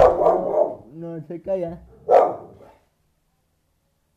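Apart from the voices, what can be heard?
dog barking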